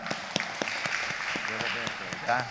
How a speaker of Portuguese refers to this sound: Vamos aplaudir Nossa Senhora.